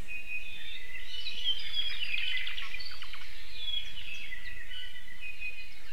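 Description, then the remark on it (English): A Hawaiian thrush, a Hawaiian forest bird, sings a continuous, warbling string of high, fluid phrases and quick trills over a steady soft background hiss with no talking. “All the Hawaiian Islands used to have their own species of thrush, but unfortunately, Kauai is the only other one where they've not yet gone extinct.”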